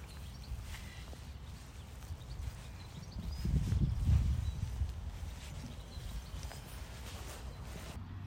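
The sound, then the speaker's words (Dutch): Horses shuffle about outdoors, their hooves making soft, irregular clip-clops over a low, steady rumble that swells briefly midway. The sounds are quiet, and nobody speaks. “Wil je nog even op je gemak afronden met de paarden?”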